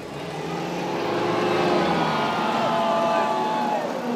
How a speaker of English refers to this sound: we headed out to Flat Rock Speedway. It's a small racetrack that is a, a real tradition south of the city, where a few times every summer, at the end of a long night of races, the school buses come out to play, or to be more precise, they crash.